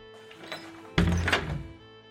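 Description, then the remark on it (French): A door swings shut with a single solid thunk, preceded by a faint scraping movement and followed by a short fading rattle. No one speaks. “Et pire que ça, durant cette plaie de l'obscurité, les Égyptiens entendaient de drôles de bruits, des portes qui s'ouvraient et qui se refermaient.”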